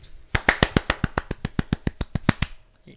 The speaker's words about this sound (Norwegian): Men først, mine herrer, jeg vil vi skal løfte våre glass og skåle, så alle hører det, for Ada Hegerberg.